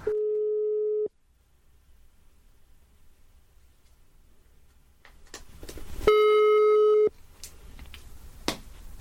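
Telephone ringback tone on an outgoing call placed from the show Nere på Noll: two steady one-second beeps about five seconds apart, clear, with faint line hiss and light rustling in between.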